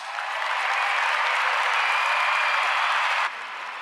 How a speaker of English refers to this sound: Round of applause.